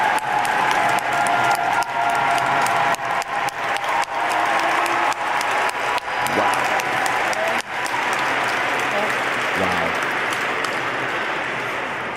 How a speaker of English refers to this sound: To resounding applause.